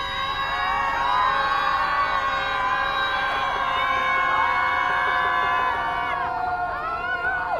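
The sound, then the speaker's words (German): A large crowd screams together as a collective release of feelings, in one sustained, loud wave of overlapping voices, holding for several seconds before individual shrieks rise and trail off near the end. “Nun darfst du im Kollektiv einfach mal rauslassen, was gerade in deinem Körper drin ist. Ein Seufzer, ein Schrei oder einfach weinen.”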